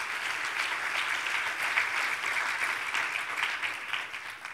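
Steady applause from a crowd giving a hand to Jesus, a dense wash of many hands clapping at an even, sustained level throughout, tapering only slightly at the end, with no talking over it.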